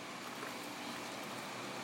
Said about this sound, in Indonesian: oh motor di dalam apa sih ada mobil lewat